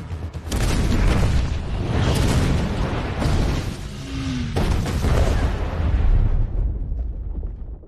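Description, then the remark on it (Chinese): A bomb detonates in a building under construction next to a television station, erupting into a loud, sustained roar with heavy low rumbling and crackling debris noise rolling on for several seconds before easing off at the end. No one speaks. “只听到轰的一声，炸弹引爆了。”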